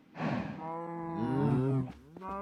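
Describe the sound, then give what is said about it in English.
Many cows in a video game, crowded into a small space, moo at once, their long, droning calls overlapping into a dense, crowded chorus that swells and fades over a couple of seconds, fairly loud, with no talking. “That's a lot of cows in a small space.”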